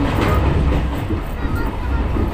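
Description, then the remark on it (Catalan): The red train, running since late 2001, rumbles steadily along the rails, a loud, continuous low roar with faint rhythmic clatter from the wheels. “Des de quan uh, circula el tren eh, Ruig? El tren vermell, el tren rouge”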